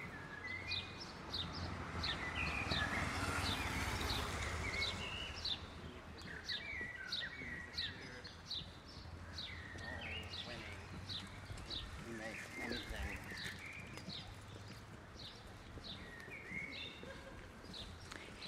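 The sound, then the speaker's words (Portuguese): A dense chorus of many small birds chirping and tweeting continuously outdoors, bright and busy, over a low urban rumble with faint voices in the background. “olha quantos pássaros”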